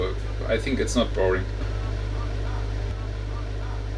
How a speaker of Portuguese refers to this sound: No Alan Curdy apenas se ouve o silêncio e o gerador a trabalhar.